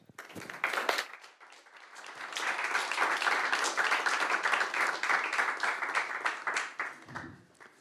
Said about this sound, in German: Applaus bitte für unsere Gäste.